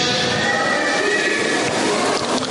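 A donkey brays loudly, a harsh, sustained call that fills the whole moment with no voices around it; the donkey has wandered onto a football pitch at a farm during a game.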